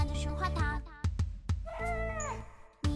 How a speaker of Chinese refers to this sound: 我要不把猫抱过来，让它叫你。